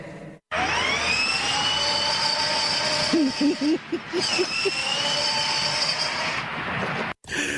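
A vehicle engine whines and roars loudly up close, its pitch rising as it revs, then holding a steady high drone for several seconds before cutting off abruptly.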